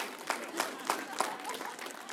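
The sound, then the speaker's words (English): An audience claps together for a couple's 19 years of marriage, a dense wash of applause from many hands, steady, with a few louder claps standing out at regular moments. “Yeah, clap loud because it's a miracle.”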